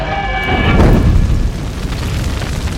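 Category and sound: sound effect, explosion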